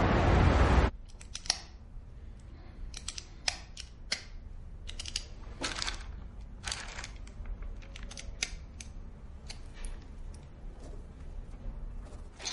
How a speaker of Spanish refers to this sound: En una sala y sentado a una mesa de reuniones, Mendoza juega con un bolígrafo y coge un móvil en una bolsa de plástico.